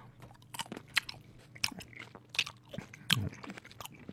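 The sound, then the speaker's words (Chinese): Someone bites into and chews grapes, producing a series of sharp, wet crunches and squishy mouth sounds in an uneven rhythm, with no talking. “啊，这葡萄好甜。”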